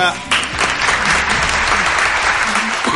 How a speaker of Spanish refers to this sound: Suenan los aplausos